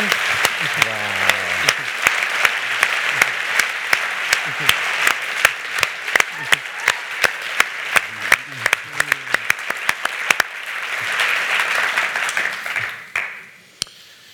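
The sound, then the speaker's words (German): An audience applauds the speaker's wife with a steady, full wash of clapping and sharp individual claps on top, some voices audible underneath, before the applause fades out toward the end. “Lasst uns meine Frau noch einmal einen Applaus geben.”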